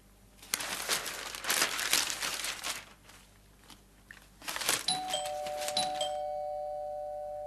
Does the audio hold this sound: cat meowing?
no